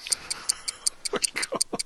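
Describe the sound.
A clock ticks quickly and steadily, about ten crisp, bright ticks in under two seconds, close and clear, while a voice murmurs softly underneath during the second half.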